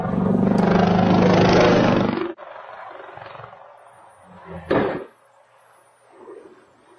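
A helicopter falls out of the sky, crashes and explodes: a loud, roaring rumble for about two seconds cuts off abruptly, leaving a low hiss, then a sharp, booming burst erupts and fades. No one speaks.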